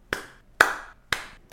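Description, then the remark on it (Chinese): Three sharp, loud hand claps spaced evenly about half a second apart, each with a bright, ringing tail, followed by the start of a fourth; no one speaks. “大鼓掌，就是觉得就是要这样”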